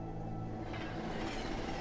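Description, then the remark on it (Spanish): A steam train running steadily, a loud continuous rumble and rattle of wheels and machinery that holds even throughout, with no voices. “El tren silbó un buen rato.”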